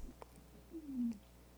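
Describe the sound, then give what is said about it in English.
A single drawn-out meow from a cat named Gracie at the door at night, sliding downward in pitch, clear, preceded by a brief soft tap and a faint low hum in the background. “Magic was the time a cat we named Gracie showed up at our door one night and pawed and meowed all through the night until we let her into our lives.”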